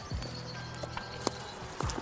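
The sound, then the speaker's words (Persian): Donkey hooves clop a few times at an unhurried, uneven pace over a steady low hum, fairly quiet, with one sharper knock standing out. “این خر هست”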